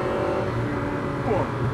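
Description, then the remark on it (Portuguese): A Ferrari 456 GT engine hums with a soft, steady low rumble, continuous, with a brief slight rise in pitch near the end as if lightly revved. “Ele não tem ronco. Quer dizer, ele tem um.”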